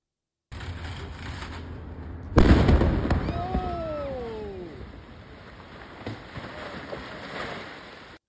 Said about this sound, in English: But let's watch this. Here's the explosion and RIP headphone users in advance.